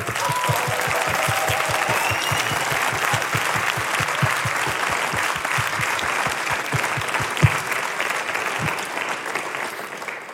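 A large audience applauds steadily and loudly for about ten seconds, a dense wash of clapping with a few louder individual claps punctuating it near the end.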